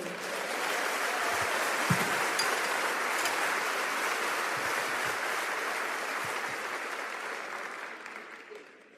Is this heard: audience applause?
yes